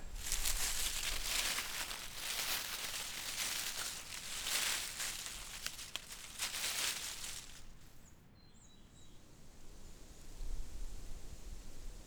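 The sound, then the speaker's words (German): Leaves of maple and birch rustle in the wind in gardens and avenues in Vienna, a broad hissing rush that swells and fades in gusts, loudest early on, then thinning to a softer crinkle before rising again. “Blätterrauschen, das ist hörbarer Wind. Einmal leise raschelnd, einmal laut aufbrausend, machen sich die sonst eher leisen Wald-, Park- und Alleebewohnerinnen hörbar.”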